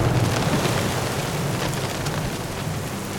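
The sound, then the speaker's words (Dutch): Heavy rain pours down steadily in a dense, hissing wash, with a low rumbling undertone of thunder running beneath it throughout, loud with no voices: a late-afternoon thunderstorm with hurricane-force gusts striking the ship Lutina. “Windstoten met orkaankracht en hevige onweersbuien geestelden het schip en rukten het uit zijn voeten.”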